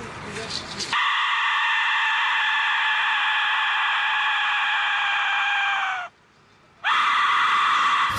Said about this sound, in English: So this is very intimidating instruments, and this is very unique. So this is the dead whistle.